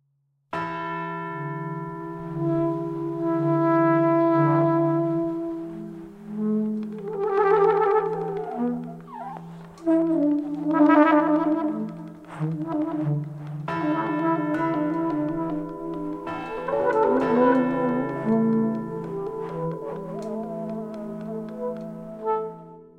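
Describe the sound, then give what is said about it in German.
Church bells play a jazz piece, ringing out a steady, melodic run of overlapping tones, their rich, lingering overtones blending together. The ringing is loud and continues throughout, with no voices. “Kirchenglocken spielen Jazz”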